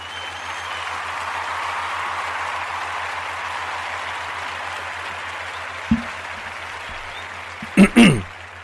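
A small applause sound effect: a steady wash of light clapping that gradually thins out, followed by a few brief, sharper knocks near the end. No one speaks.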